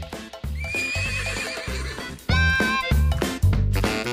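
A horse neighs loudly, its shrill, wavering whinnies rising and falling over several seconds, with rhythmic low thumps like hooves underneath and no one speaking.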